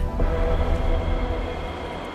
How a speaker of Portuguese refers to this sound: O metro chega à estação de Sérdica sem se atrasar um segundo.